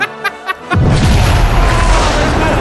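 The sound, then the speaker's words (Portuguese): A few brief tonal blips give way to a sudden, enormous explosion of a spaceship's fuel, set off by a detonator on bombs placed in the engine room, its deep roaring blast rumbling on loudly and unbroken to the end. “Cara, aí você vê, cara é uma explosão absurda, que você pegou o combustível, cara, da nave.”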